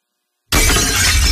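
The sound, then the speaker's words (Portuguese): A sudden, loud crash of glass shattering bursts in after half a second of silence, a dense spray of breaking shards that keeps ringing and clattering to the end. “O seu vidro quebrou?”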